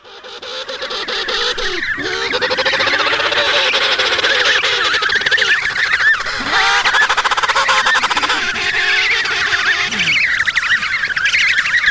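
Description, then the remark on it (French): Emperor penguin adults and chicks call continuously in a dense chorus, overlapping warbling and trumpeting cries filling the whole stretch at a steady, loud level, with no talking. “Euh, c'est des manchots empereurs adultes et poussins.”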